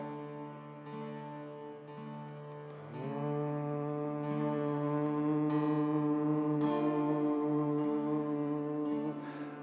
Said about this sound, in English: This time from the hum, flow into the ah sound.